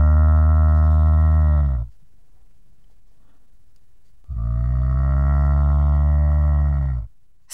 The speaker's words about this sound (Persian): صدای کی بود؟ صدای خانم گاوه؟